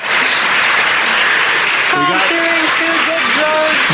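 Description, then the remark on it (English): A crowd cheers and applauds loudly and steadily throughout as a SpaceX Crew Dragon capsule carrying an all-civilian crew splashes down off the coast of Florida on Saturday night, with excited voices rising above the clapping in the second half. “was the sound as the SpaceX capsule splashed down off the coast of Florida Saturday night.”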